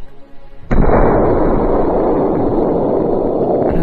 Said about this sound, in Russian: Он достал ствол, прицелился и выстрелил.